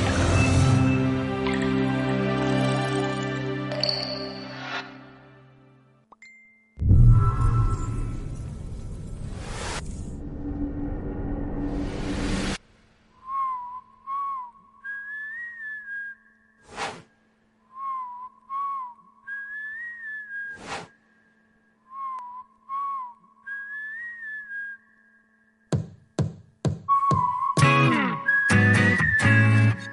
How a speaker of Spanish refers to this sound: Así que vamos a escucharla. Música